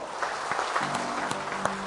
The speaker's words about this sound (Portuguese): Vocês são favoráveis que a nossa igreja então os batize no próximo domingo? Vamos aplaudir ao Senhor então?